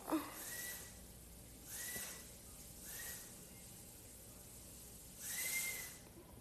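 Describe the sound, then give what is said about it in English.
A vacuum cleaner runs in another room, the living room, humming faintly, its whining hiss swelling and fading four times as it is pushed back and forth; no one speaks. “It's really loud with that vacuum cleaner in there as well.”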